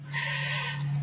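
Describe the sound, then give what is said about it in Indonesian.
A single drawn-out bird call, about a second long, steady and fairly loud, with a hooting, owl-like tone and no voices around it. “Kok tiba-tiba ada burung bunyi kayak gitu?”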